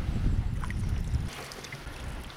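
A canoe slides through a small reed bed south of Ollinselkä with a steady, breathy swish and rustle, heavy low rumble at first that eases off midway, with a few faint high bird chirps over the hiss and aspens rustling.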